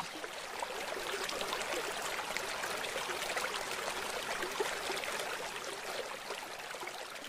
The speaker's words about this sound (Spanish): fue maravilloso eh, armonizar mi agua interna con el sonido del agua del río que pasa por la finca